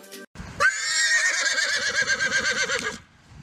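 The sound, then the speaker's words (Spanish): A horse in the countryside whinnies loudly, one long quavering neigh lasting a couple of seconds with a rapid wavering pitch, then it fades out. “Anda, pero no te digo que tenemos un caballo por aquí.”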